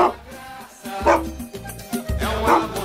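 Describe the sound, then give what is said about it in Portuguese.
A dog that ran onto the pitch during a Bolivian league football match barks in short repeated bursts, three loud woofs spaced about a second apart, with a bit of background noise between them. “Como esse cachorro conseguiu invadir o campo e terno, né?”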